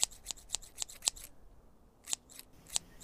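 Scissors snip quickly and crisply, cutting a woman's hair, a run of about five sharp cuts, then a short pause before a few more snips. Clear, with no voices.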